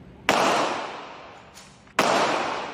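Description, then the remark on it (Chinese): Gunshots: a hooded man who got out of a black car and walked into an alley fires a gun at a residential house, two loud, sharp cracks about a second and a half apart, with a fainter shot between them, each trailing off in a long, hissing decay. No one speaks. “戴着头套的男子下车后，手上还拿着枪支，走进巷子内，没多久，枪声大作。”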